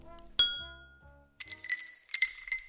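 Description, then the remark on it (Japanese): Glasses of Kobe tap water clink together in a toast at a water bar presented by the Kobe City Waterworks Bureau: one sharp ringing clink rings out and fades, followed by a quick flurry of several lighter, bright glass taps. No one speaks. “じゃあひとまず乾杯”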